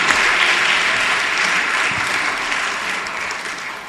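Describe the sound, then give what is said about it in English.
An audience applauds steadily for Jesus, a dense wash of many hands clapping at once, loud and sustained across the whole stretch with no voices breaking through. “Put your hands together for Jesus.”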